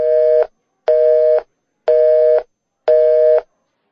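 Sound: phone busy tone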